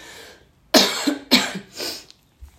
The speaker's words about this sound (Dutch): even kuchje